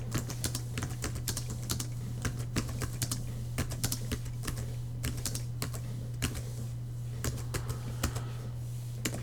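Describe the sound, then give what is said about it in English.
Rapid, irregular key clicks from typing a short message in contracted braille on a braille display keyboard, crisp, running for several seconds over a steady low electrical hum, with no voices. “To switch this, you press F12, and now it says Braille keyboard on the display, and I have dismissed it, and I will type a little message.”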